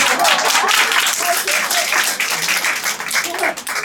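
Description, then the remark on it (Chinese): An audience breaks into loud, steady applause, a dense wash of many hands clapping that holds at an even level for the full few seconds without pause. “谢谢谢谢大家的掌声。”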